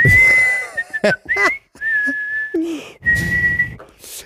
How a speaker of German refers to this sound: Vor allem am Ende des Tages pfeife ich immer ….